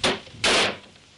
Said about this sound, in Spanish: Marcel se acerca despacio a ella. Cierra la puerta de una patada.